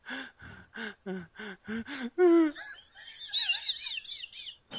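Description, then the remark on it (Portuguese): A voice mimics a puppet crying with an asthmatic fit: about seven quick, rhythmic wheezy gasps, a louder strained wail, then thin squeaky whistling cries, fairly loud. “O boneco tá chorando, mano. Caralho, tá com é. asma.”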